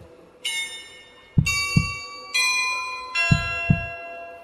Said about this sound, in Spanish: Oigamos estos latidos de un corazón delator.